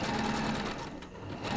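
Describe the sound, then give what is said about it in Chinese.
A treadle sewing machine runs steadily, a dense, continuous mechanical whir with a faint rattling texture and a steady hum underneath, holding an even loudness with a slight dip near the end. “她妈妈小时候是在踩缝纫机的嘛”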